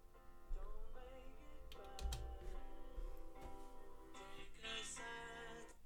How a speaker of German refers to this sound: Das, das war mein Wecker.